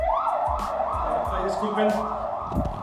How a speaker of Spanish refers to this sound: disculpen, una, ambulancia pasó aquí cerca.